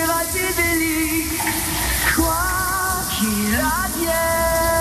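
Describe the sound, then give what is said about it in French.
Shower water runs in a steady hiss throughout, while a voice sings a wavering melody over the spray. “Petit détour par la douche, tout d'abord,”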